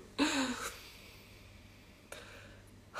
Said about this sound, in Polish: Oh, dobrze, słuchajcie, weźmy sobie oddech.